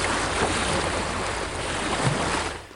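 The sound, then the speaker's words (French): Ocean waves wash steadily around a boat floating on the salty blue ocean, a constant broad rushing of water with wind mixed in and a low rumble underneath, fairly loud with no voices. “Bonjour à toutes et à tous et bienvenue sur mon bateau qui flotte sur l'océan couleur bleue salée,”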